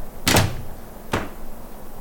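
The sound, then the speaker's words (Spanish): Two heavy knocks on a door, spaced almost a second apart, loud, each a booming thud with a short resonant tail. No one speaks. “De nuevo se oyeron varios golpes en la puerta.”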